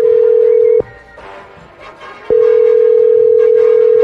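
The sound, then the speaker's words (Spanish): A steady, loud telephone dial tone hums while a call to a man's wife is being dialed, breaks off for about a second and a half with faint clicks and rustling in the gap, then resumes unchanged. “Vamos a marcarle a tu esposa, ¿eh?”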